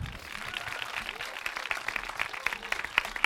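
An audience claps steadily, a dense patter of many hands with a few sharper, louder claps standing out near the end, heard from within the crowd.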